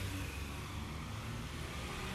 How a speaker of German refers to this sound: Heute rauschen hier die Autos vorbei.